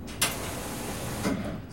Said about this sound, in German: Was hier zischt, ist die Klimaanlage im Berliner Verlagsgebäude der Tageszeitung Taz. Sechs Menschen hohe Ventilatoren und mehrere Wärmetauscher aus dünnen, dicht nebeneinander liegenden Rohren kühlen alle sechs Etagen des Gebäudes